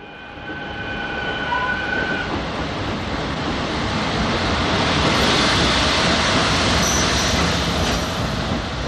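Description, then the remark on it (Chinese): A train speeds home through the night with a steady, loud roar of wheels and rails, thin high-pitched squeals ringing over it for the first couple of seconds before fading into the continuous rumble. “我觉得那趟在夜里飞奔回家的车开得好慢好慢。”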